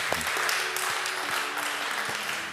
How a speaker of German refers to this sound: Deswegen wollen wir dir nochmal einen Applaus geben. Danke, Heiliger Geist.